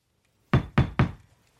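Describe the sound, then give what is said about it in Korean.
Three firm knocks on a room's wooden door in quick, even succession, fairly loud, followed by a short fading resonance and then quiet. “몇 날이 건너지 못해 실은 한층 흥분된 표정으로 준보의 방문을 두드렸다.”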